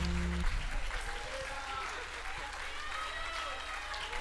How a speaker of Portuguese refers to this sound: Aplauda mais forte. Você está aplaudindo o Deus que te libertou, o Deus que te salvou, o Deus todo-poderoso, aquele que está no controle de todas as coisas.